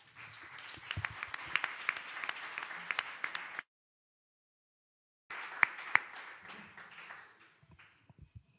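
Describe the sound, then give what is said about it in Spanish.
Audience applause: a dense wash of many hands clapping, steady for a few seconds, then a brief silence before the clapping resumes and gradually thins out with a few scattered claps. “Un aplauso para todos.”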